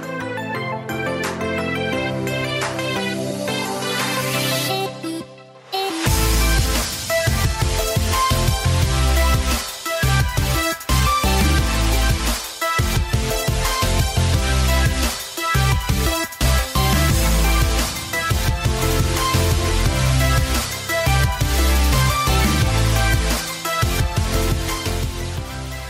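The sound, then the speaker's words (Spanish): A loud, full music cue plays on its own, opening with a brief sustained chime-like intro before a punchy beat with heavy bass kicks in and drives steadily for about twenty seconds. “Si escuchan la música, esta musiquita, sí, ya, ya se está escuchando, es porque ustedes y yo lo sabemos.”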